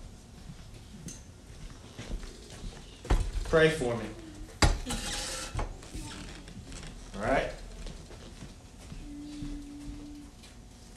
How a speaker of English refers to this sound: I'm going to set these chairs up.